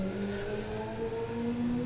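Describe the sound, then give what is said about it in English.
A motor engine drones steadily with harmonic tones that slowly rise in pitch, like a motorcycle driving by at moderate loudness, with no voices. “Motorcycle driving by.”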